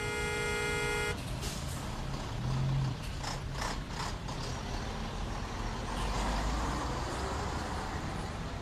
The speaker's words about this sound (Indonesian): Ya Allah, macet banget nih.